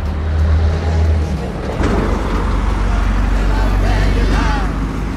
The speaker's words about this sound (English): Des camions passent. There are trucks going by.